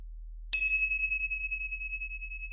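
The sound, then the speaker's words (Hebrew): A single bright strike of small meditation cymbals, rung once to begin a meditation practice, rings out clearly, its high metallic tone sustaining and slowly fading over the next couple of seconds in otherwise quiet surroundings. “אני אתחיל את התרגול עם צלצול אחד במצילות, ואסיים אותו עם שלושה צלצולים.”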